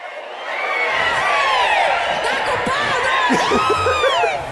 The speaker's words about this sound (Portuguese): Enfim, fica aí a vaia pro Yudi que, porra, cara, vai, vai jogar PlayStation, vai.